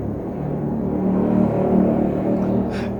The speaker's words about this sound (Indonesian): yang nanggepin suara motor gondes lagi